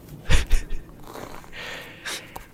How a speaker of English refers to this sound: Hologram Janeway's like, Dal, I'm gonna teach you how to blow up the ship, but first I'm gonna lay this fork on this pie crust and lower it through the crunchy, flaky pastry into the pie.